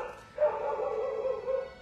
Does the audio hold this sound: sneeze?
no